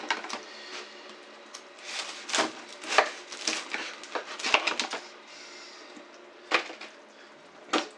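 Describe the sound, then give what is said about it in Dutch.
A knife saws through pink bread rolls in crackly strokes, an irregular run of scraping cuts with brief pauses and a couple of sharper snaps near the end, no voices. “Zo, en die ga ik even snijden.”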